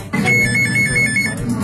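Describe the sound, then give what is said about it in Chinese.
A loud, steady anti-fraud center warning alert rings like a telephone bell, signaling that a victim is on the phone with scammers; a bright sustained tone with a warbling ring pattern lasting the whole moment, with no voices over it. “反诈中心预警响起，被害人正与诈骗分子通电话。”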